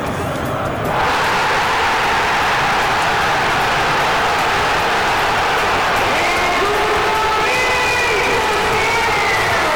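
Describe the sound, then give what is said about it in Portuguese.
A huge crowd of Corinthians fans at the Neoquímica Arena in Itaquera erupts into loud, sustained roaring and cheering after a quieter first second, as Roger Guedes scores a penalty equaliser against Bahia at the end of the first half. A dense wall of voices with whistles and shouts rises above it throughout. “Sem acompanhar a equipe na Casa Alvinegra desde fevereiro de 2020, o grito entalado na garganta veio no final do primeiro tempo, quando Roger Guedes marcou de pênalti e empatou, já que o Bahia havia saído na frente.”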